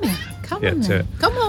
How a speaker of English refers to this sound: So the cat is right next to the camera. She's looking like she wants to go.